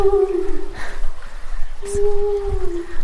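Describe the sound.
A person imitates a wolf's howl with two long, sustained, wavering vocal tones, separated by a short pause, fairly loud over a faint background.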